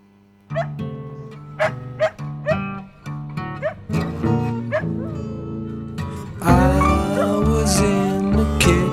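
A dog barks and whines in a string of sharp yelps over a slow rock backing, then the full band swells louder near the end while the dog keeps joining in.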